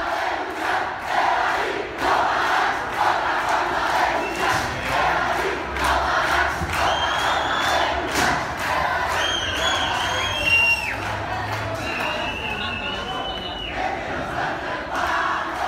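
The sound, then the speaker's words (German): A large crowd of students loudly chants in unison, inside an echoing metro, a protest slogan saying that riding without a ticket is another way to fight. Their voices merge into a dense, continuous roar of shouting throughout. “Das ist genau das, was die Studierenden damals in der U-Bahn gerufen haben.”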